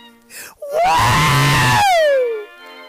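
A man lets out one loud, drawn-out shout of surprise. His voice jumps up in pitch, holds strong, then slides downward and fades. No other talking is heard.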